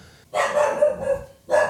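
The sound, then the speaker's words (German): A dog barks loudly at someone, a quick run of sharp barks followed by one more after a brief gap, with no talking. “Nori bellt hier gerade maximal irgendwen an.”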